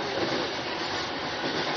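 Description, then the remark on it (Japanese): A Sotobu Line through rapid service train bound for Kazusa-Ichinomiya, next stop Shin-Urayasu, runs along the rails with a steady, dense roar and rumble that holds at an even level throughout, with no voices heard. “This is the Sotomayor Line Rapid Service Train for Kazusa Ichinomiya.”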